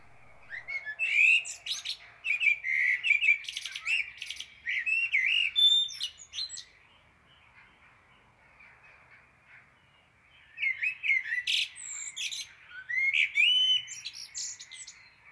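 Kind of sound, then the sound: bird, house sparrows chirping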